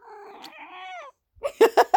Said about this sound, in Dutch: Dat is mijn kat, Puk.